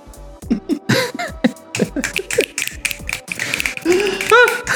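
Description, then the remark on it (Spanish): A rapid, irregular run of sharp finger snaps, crisp clicks coming several per second, mixed in with people talking and laughing over them. “Ay, chasquido, chasquido,”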